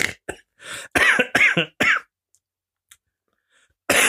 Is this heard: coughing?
yes